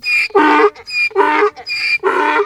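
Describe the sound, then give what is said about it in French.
A voice imitates a donkey braying, three loud hee-haw cycles in quick succession, each alternating a thin high whine with a harsh, raspy lower blast, with no other sounds. “L'âne se met à sauter joyeusement et continue son chemin, heureux et répétant”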